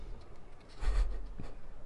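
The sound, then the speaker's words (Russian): Soft papery rustling as large sheets of Whatman drawing paper are flipped open, a brief swishing turn with a light thump, then a quieter second rustle, low in volume with no one talking. “Я слышу, как он листает что-то.”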